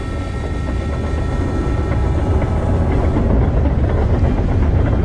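A train rumbles steadily along the tracks, loud, with a dense low roar and faint rhythmic clatter that stays constant throughout, with no voices.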